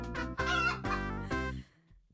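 A hen clucks loudly, four quick, throaty clucks in a rapid burst that trails off into quiet, with no voices around it.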